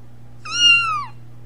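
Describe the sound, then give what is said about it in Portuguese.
A single clear cat meow, a sound effect played from a radio station's jingles, drawn out for about two-thirds of a second with a slight falling pitch at the end, over a low steady hum, with no talking. “Larga o gato.”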